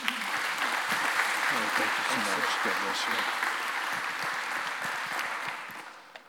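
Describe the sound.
A church audience at LifePoint Church applauds steadily for several seconds to welcome a guest speaker, a dense wash of clapping that stays loud throughout before tapering off at the end, with faint voices mixed underneath.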